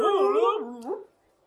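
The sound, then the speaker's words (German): A voice imitates a tape rewinding with a short, warbling, wavering vocal sweep that slides up and down in pitch, fairly loud, then fades out after about a second. “Okay, lass uns zurückspulen, damit es so klingt, als hätte ich es zum ersten Mal richtig hingekriegt.”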